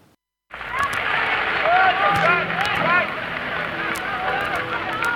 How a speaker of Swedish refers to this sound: ska ni nu få höra en liveinspelning från 1968. Låten heter … och publiken är med på noterna.